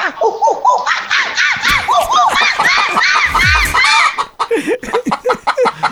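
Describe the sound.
A person imitates a monkey with rapid, high-pitched whooping and chattering calls, looping up and down in pitch, loud and continuous for several seconds, then breaking into shorter bursts.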